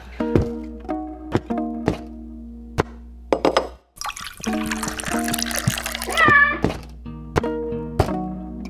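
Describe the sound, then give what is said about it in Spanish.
Water is poured into a glass for a couple of seconds, a splashy gurgle that rises in pitch as it fills, set against steady tonal background sounds and brief knocks. “¿Agua o leche? Agua.”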